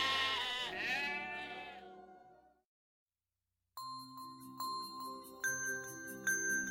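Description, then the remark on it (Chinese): A flock of lambs eating grass bleat in a wavering, high-pitched chorus for a couple of seconds, then fall silent before a light chiming melody with bell-like dings begins. “那儿只有一群小羊，正在吃着青草。”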